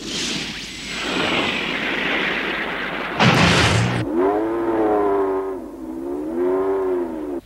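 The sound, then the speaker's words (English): A car engine in an animation revs up with a whooshing burst as the car heads down a dirt road, then settles into a rising and falling whine that sounds more like a motorcycle, loud, with no voices. “That was a pretty cool animation there, and continues now onward down the road with the car engine kicking in. Kind of sounded more like a motorcycle there.”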